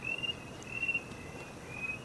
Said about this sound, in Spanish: Y ahora que los parques no tienen gente y que se escuchan los grillos